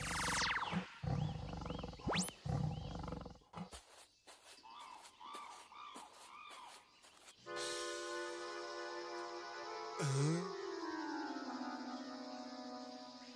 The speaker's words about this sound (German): Plötzlich hörten sie ein lautes Knurren und sahen einen großen Bären, der sich ihnen näherte. Sie fürchteten sich sehr.